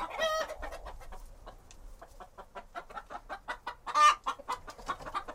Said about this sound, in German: so an die 50 Hühner.